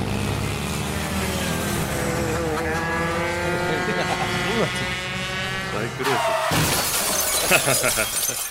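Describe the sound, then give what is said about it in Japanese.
A motorcycle engine whines and revs steadily for several seconds during a motorcycle race at a sports day, then the motorcycle crashes into a neighbouring house with a sudden loud burst of shattering glass that clatters on until the end. “運動会でバイクレースしてるっていうこと それで近所の家に突っ込んじゃって理解できないおじさんに怒られてるっていう”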